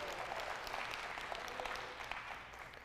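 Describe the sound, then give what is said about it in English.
An audience claps hands together in praise to God on a Pentecost Sunday morning, a sustained, dense burst of many overlapping sharp claps forming a steady crackling wash at an even loudness for about three seconds, with no voices. “Somebody put your hands together this morning and give God a hand clap of praise.”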